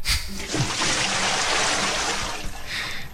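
A bucket of cold water is poured out in one continuous splashing gush for a few seconds, loud, then tapers off slightly at the end.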